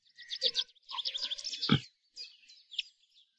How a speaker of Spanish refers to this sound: Y ahora que estoy aquí con el sonido de los pajaritos, en un día maravilloso